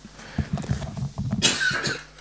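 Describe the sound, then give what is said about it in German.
A single harsh cough bursts out partway through, fairly loud, after a stretch of low, muffled background murmur. “Ich kann dich kurz muten, wenn du husten möchtest.”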